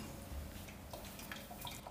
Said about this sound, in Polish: I teraz może przeleję tę wodę z powrotem tak. tu, tylko najpierw e, doleję też do szklanki.